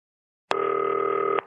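A single electronic telephone ring as a call is placed to Ivan Klasnitsch: a steady, buzzy tone with a bright upper note, lasting just under a second, starting abruptly and cutting off cleanly, with no voices.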